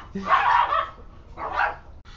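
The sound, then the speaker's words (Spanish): Small dogs bark in two short, high-pitched bursts, the first longer and yappier, with no talking over them. “Ay, estos perritos.”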